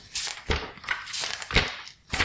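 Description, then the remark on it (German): Paper pages being leafed through near a candle, a run of dry rustling swishes and crinkles, about five turns in quick, uneven succession, fairly soft and with no voices. “Jetzt blätter nicht noch in die Kerze rein.”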